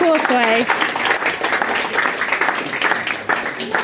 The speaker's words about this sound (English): Round of applause.